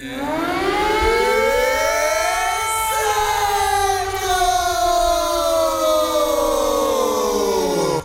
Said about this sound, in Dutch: Om bekend te worden als Incentro kunnen we misschien wel het luchtalarm hacken. Dan krijg je de eerste van de maand ongeveer dit te horen.